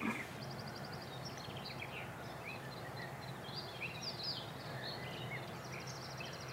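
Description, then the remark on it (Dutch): Many birds chirp and twitter continuously at dawn, overlapping high calls over a steady low background hum, with no one speaking. “Maar hier zijn veel vogels.”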